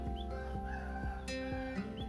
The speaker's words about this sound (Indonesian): ya ayam silahkan